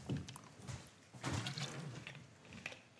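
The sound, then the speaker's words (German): Quiet liquid sounds: water sloshing and trickling into a glass in a few short bursts, followed by soft sips and swallowing, with no talking. “Gib mir noch mal das Wasser, dann äh, trinke ich mal was.”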